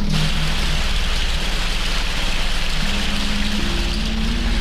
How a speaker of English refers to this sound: The rain was coming down like it was trying to wash us away, so we were almost glad to get inside that spooky old place.